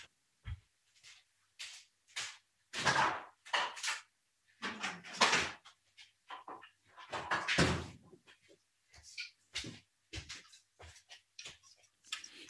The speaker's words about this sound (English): it uh, it is a satisfying sound to hear the the fridge open and close.